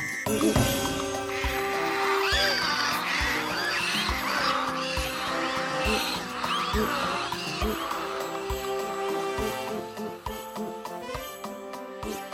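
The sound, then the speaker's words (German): A dense, chaotic swirl of fairground noise, with honks, shrill whines and squeaks piling over each other continuously at a steady, fairly loud level, with no one speaking. “Es blinkte und glitzerte, es hupte und nöhlte, jaulte und fiebte, und alles drehte sich, alles drehte sich um sich selbst.”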